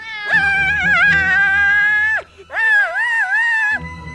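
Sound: cat yowling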